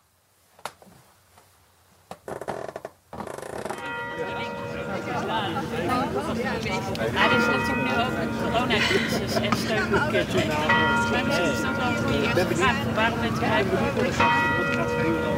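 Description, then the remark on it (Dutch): The bells of the Ridderzaal, not church bells, ring out in a full, sustained peal with overlapping tones that keep swelling, preceded by a few brief words and clatter at the start, with faint crowd murmur beneath. “Ja, het zijn de klokken van de Ridderzaal.”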